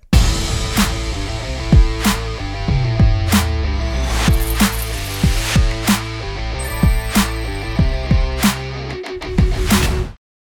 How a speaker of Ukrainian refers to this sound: Заставка. Поїхали!